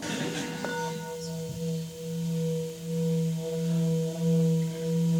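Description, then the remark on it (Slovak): A singing bowl used for sound healing rings with a sustained, shimmering hum, its steady overtones swelling and pulsing gently as it is rubbed continuously, fairly loud, with no voices. “Takže miska úplne jednoducho sa chytí, čo najviac, aby sa teda uh, eh, neblokovalo.”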